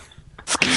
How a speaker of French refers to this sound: t'as éternué là.